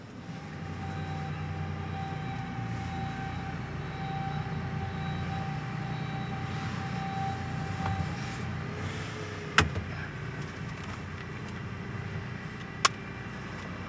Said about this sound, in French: On va où maintenant, Jurel On va dans le garage. Hein Garer le camion.